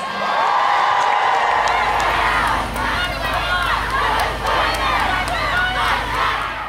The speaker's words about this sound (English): That was the sounds of the March for Women protest in Australia. Women, children, grannies, and many others marched around the country to send a message enough is enough.